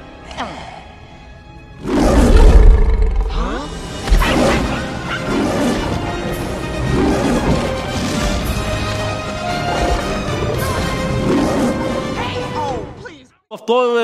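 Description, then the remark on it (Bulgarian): A powerful lion roar bursts in loudly, a deep rumbling growl that rolls on for several seconds, layered over dense, swelling sound that carries through to the end; the roar of Simba's father in the scene where young Simba opens his mouth. “момент, в който малкият Симба си отваря устата, мислейки си, че този лъвски рев идва от него, истината е, че този лъвски рев идваше от баща му.”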